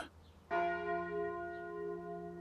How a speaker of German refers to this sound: Das Mittagsläuten kommt heute von der katholischen Pfarrkirche Mariä Himmelfahrt im oberpfälzischen Hohen Chemnat.